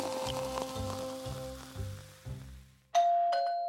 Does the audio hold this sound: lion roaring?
no